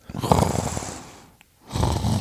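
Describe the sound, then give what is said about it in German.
A voice imitates human snoring: two long, rumbling snore breaths, separated by a brief quiet gap, each buzzy and rough. “Ich glaube, er schnarcht.”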